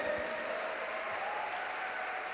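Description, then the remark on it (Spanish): Steady, sustained applause from an audience giving a loud round of applause to Jesus, a dense wash of many hands clapping at an even level throughout, with no voices standing out. “Así que dale un fuerte aplauso a Jesús.”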